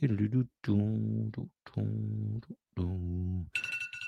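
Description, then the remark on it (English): A phone alarm goes off: four sustained, buzzy tones of roughly equal length with short gaps between them, then a brighter, higher ringing tone cuts in at the end. “oh, there's my alarm because I'm supposed to be on the radio at 8:40.”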